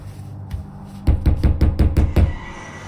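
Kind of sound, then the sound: household object, knocking on a door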